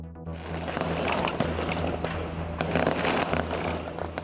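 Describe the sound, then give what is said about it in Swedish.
Fireworks crackle and pop continuously inside a burning fireworks shop in Ljungby that was struck by lightning the evening before, heard in the morning; dense overlapping bursts with sharper bangs standing out over a steady low roar. “De smällande fyrverkerierna gör att räddningstjänsten inte kan gå in i byggnaden eftersom den riskerar att rasa.”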